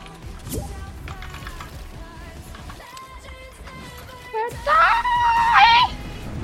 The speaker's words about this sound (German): schrei einmal rum.